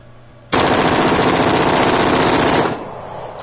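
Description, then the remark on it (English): An AR rifle fires a loud full-auto burst that empties a full clip, rattling off rapid-fire shots nonstop for about two seconds, then cutting off abruptly, leaving a lingering echo. “that's as long as it gets. That's a full clip.”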